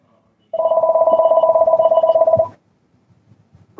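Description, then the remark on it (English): A telephone rings once with a call from a telemarketer, in a steady, buzzy two-second burst with a rapid warbling pulse, fairly loud, followed by quiet background noise and faint movement. “I just can't figure out how to do it without totally disconnecting the phone.”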